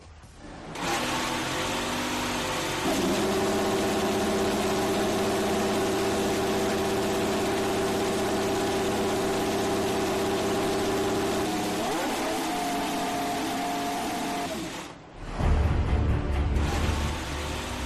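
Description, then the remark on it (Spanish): The engine of a Ferrari F175 Formula 1 car runs loud with a steady, buzzing drone, rises in pitch as it revs, then cuts out briefly before a deep low rumble returns. “Este es el sonido del F175.”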